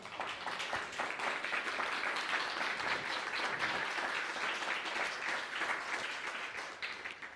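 Sustained applause from an audience giving themselves a round of applause, a dense, steady wash of many hands clapping at an even loudness for several seconds before tapering slightly at the end.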